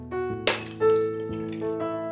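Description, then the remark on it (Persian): A glass jam jar slips from someone's hand in a kitchen, drops and shatters with a sharp crash, followed by bright tinkling shards ringing out briefly over a sustained musical background. “همین که ظرف مربا رو برداشت یهو شیشه مربا از دستش سر خورد و افتاد و شکست”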